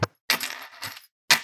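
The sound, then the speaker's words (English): Metal links of chainmail jingle and clink in bright, shimmering bursts as it is shaken, two or three quick rattles with brief pauses between, fairly clear with no voices. “No, that is the sound of chainmail.”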